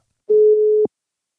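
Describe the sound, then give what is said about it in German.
A single short beep of a telephone ringing tone on an outgoing call to a quiz winner, a steady mid-pitched hum lasting about half a second, clear, with no voices. “Nun haben wir unter den richtigen Einsendungen ausgelost und ich rufe jetzt die Gewinnerin an.”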